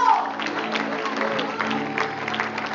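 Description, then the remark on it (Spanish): An audience applauds the Lord at the close of a church service, a steady, dense wash of clapping that holds at an even level throughout, with a faint hum of voices and a sustained tone underneath. “Así es que vaya a su asiento y vaya a su casa glorificando a Dios y dándole el mayor aplauso al Señor.”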